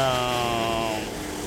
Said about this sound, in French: attends, je vais attendre que le bateau passe.